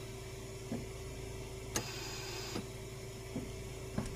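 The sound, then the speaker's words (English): A steady mechanical hum of an oxygen ventilator sound effect added to a video of a man entering the White House after taking off his mask, with soft rhythmic clicks and one brief airy hiss as the machine cycles. It plays alone at low volume, with no talking. “Oh yeah, they added a oxygen ventilator sound. He can't breathe.”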